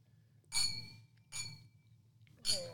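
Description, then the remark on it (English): Three bright clinks of glasses touching in a toast among mates sitting at a table, each one ringing briefly with a clear high tone, spaced irregularly over a low background murmur. “there we go. We're back. Cheers, boys.”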